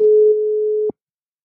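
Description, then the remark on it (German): A single steady telephone call tone hums at one pitch for just under a second as someone phones their uncle, then cuts off abruptly with a soft click, leaving silence; no one speaks. “ich telefoniere jetzt mal wieder den Onkel an, denn der wartet darauf, dass er auch wieder was sagen darf.”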